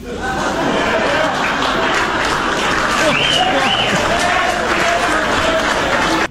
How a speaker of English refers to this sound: The mix of reactions is the funniest part. Yeah, you can hear people's brains. Eh, do I clap for this, or am I on camera? Uh, what am I supposed to do here? Do I immediate cheer, whoops of laughter, groans of horror?